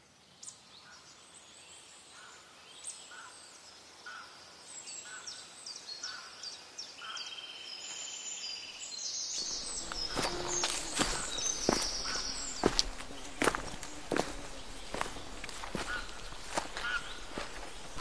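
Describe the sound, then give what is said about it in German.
Quiet forest ambience with chirping birds and insects, then from about ten seconds a steady series of crunchy footsteps walking through leaves and undergrowth, louder than the faint background. “Schön ist hier im Wald, nicht wahr”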